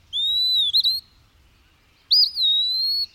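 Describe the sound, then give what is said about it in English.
Two clear, sweet whistled phrases from an eastern wood-pewee, each a drawn-out slurred note with a brief flourish, separated by a short pause, loud against a quiet background. “Letter to an Eastern Wood-Pewee”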